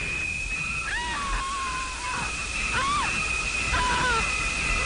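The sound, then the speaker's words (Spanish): Water runs steadily from a shower in a film soundtrack with a constant hiss, while shrill, swooping high-pitched tones cut in repeatedly over it in a few sharp bursts. “Agua en una ducha.”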